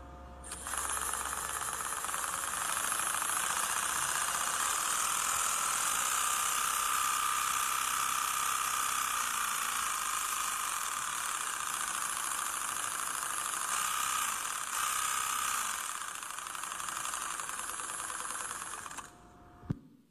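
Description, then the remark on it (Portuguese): A Ferrari engine roars for about nineteen seconds, its loud, buzzing high-pitched whine holding steady with slight shifts in pitch as the revs change, then cutting off abruptly. No one speaks. “essa combustão, como ele dá o motor, é tão eficiente que faz com que o carro da Ferrari seja único”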